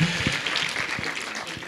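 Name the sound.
audience applause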